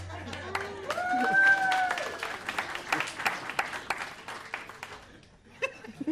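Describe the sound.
An audience bursts into applause as a vote in a penis-drawing contest, a dense crackle of many hands clapping with scattered laughter and cheering voices, peaking early then thinning into irregular claps before a few final bursts.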